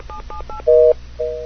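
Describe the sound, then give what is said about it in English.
Three quick touch-tone dialing beeps as a phone call is dialed, then two longer steady busy-signal tones because the line is busy, heard clearly on a quiet line with no one speaking. “Ah, it's busy. Darn. Somebody's on the phone.”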